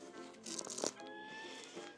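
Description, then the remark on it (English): Brief shuffling and rustling of things being moved around as someone searches to find their place from last time, with a louder burst in the middle before settling into a quieter background with a faint steady tone. “That's the thing that all this shuffling around is the sound of me trying to find my place from last time.”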